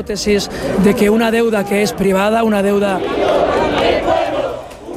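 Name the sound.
protest crowd chanting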